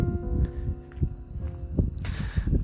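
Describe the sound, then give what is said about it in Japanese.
Steady footsteps of a person out on a stroll crunch along an outdoor path at a relaxed walking pace, with a faint constant tonal hum and a brief hiss of background noise near the end. “その横を、みな、あの、横目で見ながらですね、えー、散歩をしております。”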